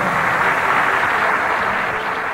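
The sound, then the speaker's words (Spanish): A studio audience in Miami applauds a guest steadily, a dense, loud wash of many hands clapping that holds at an even level for the whole stretch, with no voices heard above it. “Con todo y ello, el aplauso cariñoso del público de Miami y el agradecimiento nuestro por estar en nuestro programa.”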